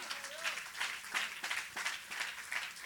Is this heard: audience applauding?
yes